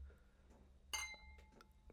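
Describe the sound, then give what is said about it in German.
Two wine glasses of Merlot red wine clink together once in a toast over a green tablecloth, giving a bright, sharp chime that rings on with a clear, lingering resonance. “Oh, wie schön das geklungen hat. Tolle Gläser.”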